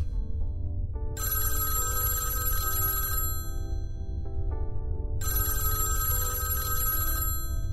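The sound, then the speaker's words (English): A telephone bell rings in two long, bright bursts separated by a short pause, fairly loud over a steady low hum with soft tonal notes underneath. “Is there a phone in here?”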